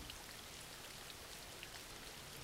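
Steady rain falls throughout, a dense, even hiss of drops with occasional brighter patters, fairly soft and continuous with no voices.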